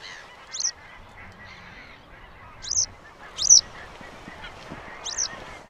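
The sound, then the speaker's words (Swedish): Four short, high, wagtail-like flight calls, given as the bird flew off, with a clear rolling, burred r-quality, less deep and more widely spaced than a citrine wagtail's, spaced irregularly over about five seconds. They stand out clearly above a faint, low background rumble. “Ja men, ja, men det där är ju ja, ett, ett perfekt fälldäggläte. Det är, eh, är tydligt R-ljud och eh, om man jämför med citronärla så är det ju inte lika djupt tycker jag och det är liksom glesare mellan tillslagen.”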